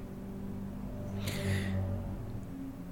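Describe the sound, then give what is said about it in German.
A car drives past outside, its engine noise swelling to a brief, fairly loud roar over a low steady rumble before fading again. No one speaks. “Hier fuhr gerade irgendwie ein krasses Auto.”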